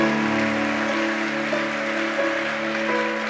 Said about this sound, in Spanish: Aplausos a aquellos que hicieron la oración de fe.